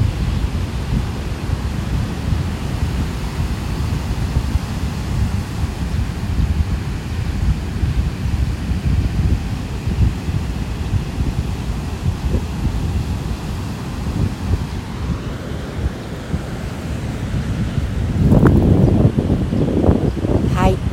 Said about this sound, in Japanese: 今日はちょっとスペシャルバージョンで、えー、海のあるところに来ててサーフィンスポットなんですごく波があの大きくて音が聞こえてくるので皆さんにこの気持ちのいい波の音をシェアしたいと思います聞こえますかね